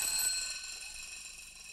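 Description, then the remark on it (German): Two alarm clocks ring together in a town in the morning, a steady high-pitched metallic jangle that carries on without a break and fades slightly. It sounds fairly quiet, with no talking. “Zwei Wecker.”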